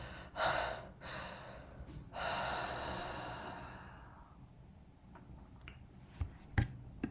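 A person demonstrates heavy gasping breaths: a short, sharp intake followed by a long, rough, drawn-out breath that fades away, then a few faint clicks near the end. No talking.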